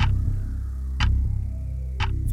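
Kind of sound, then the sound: sound effect, ticking clock countdown timer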